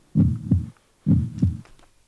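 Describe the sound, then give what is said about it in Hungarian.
Two loud heartbeats heard on a cardiac monitor, each a deep, muffled lub-dub double thump, arriving about a second apart in a steady rhythm, with no talking. “A monitornál sokkal jobb, amikor a kardiogén ezt halljuk.”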